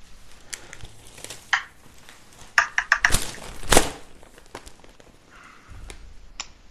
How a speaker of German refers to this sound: Äh, ach, würfel doch einfach mal, komm. Dann würfel ich einfach mal. Dann würfel doch einfach mal.